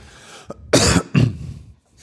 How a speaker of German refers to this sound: Moment, ich mal einmal husten hier.